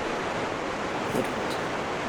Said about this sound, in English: And uh, just like there's like a sound of rushing water and this kind of like pulsing blue light coming up from up ahead.